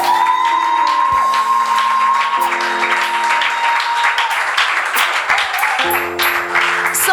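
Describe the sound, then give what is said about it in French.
A loud crowd claps and cheers continuously, acclaiming God, with shouts and whoops rising over dense applause and a sustained tonal hum running beneath the noise. “Est-ce que tu es sûr que ton acclamation a peut faire trembler même un caillou”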